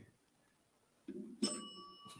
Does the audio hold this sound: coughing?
no